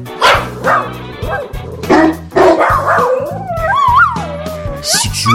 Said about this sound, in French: Écoutons quelques témoignages de chiens satisfaits de leur toilettage.